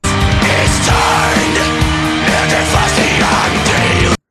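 A loud, dense burst of death metal about a Faustian bargain plays continuously, with heavily distorted guitars, pounding drums and harsh screamed vocals filling the whole stretch before it cuts off abruptly.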